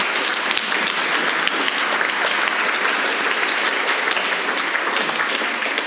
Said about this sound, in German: Ein herzlichen Applaus für die kurzen und klaren Antworten, auch wenn die Fragen manchmal schwierig sind.